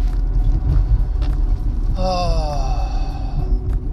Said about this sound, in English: I mean, I know you get the great audio quality of hearing me in my car. You get to hear the car go over all bumps and cracks turn signal when it comes on.